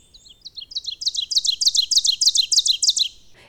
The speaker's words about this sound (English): its song both loud and insistent, but a nearby ovenbird can be shockingly difficult to pick out even as it belts out its song not far above eye level.